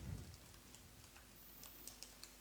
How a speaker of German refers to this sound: Es klappert die Tastatur, alles ist ganz spannend.